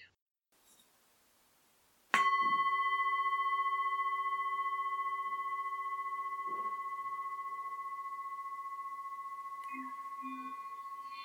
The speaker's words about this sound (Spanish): Al finalizar la meditación, voy a tocar el gong y a dejar tres minutos de silencio, después de los cuales voy a volver a tocar el gong y terminar el audio.